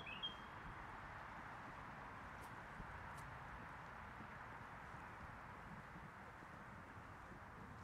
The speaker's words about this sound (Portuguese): Tem um ninho aqui do meu lado, não sei de qual pássaro. Bom, se ele resolver contar de novo, a gente para para ouvir.